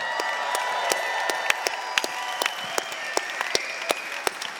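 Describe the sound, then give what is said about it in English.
An audience applauds to congratulate a newly engaged man, with a steady patter of hands, while sharp, high-pitched individual claps crack out irregularly above the wash, and a faint sustained tone lingers underneath. “you also you also clap very high.”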